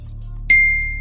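A contestant buzzes in during a board game trivia quiz. A single bright quiz buzzer ding rings out midway with a sharp onset, then a clear, high, bell-like tone slowly fades over a steady low hum, with no voices.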